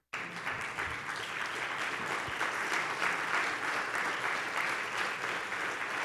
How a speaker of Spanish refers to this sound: ¿Está acá conmigo? Pero si ese aplauso está muy débil.